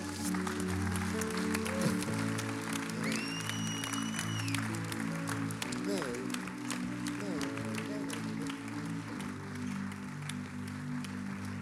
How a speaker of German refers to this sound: Und bevor wir beten, lasst uns nochmals einen Applaus geben. Everyone here on the stage.